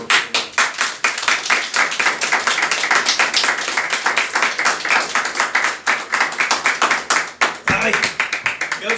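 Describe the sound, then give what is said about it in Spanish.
A crowd claps steadily for several seconds, dense, with a mix of voices cheering or talking beneath the sustained applause before it begins to thin near the end. “Aplausos”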